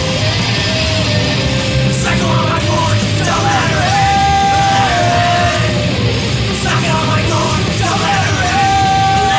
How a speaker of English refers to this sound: I think this is going to be the screamy part.